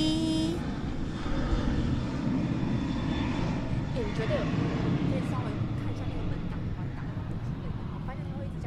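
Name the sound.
airplane flying overhead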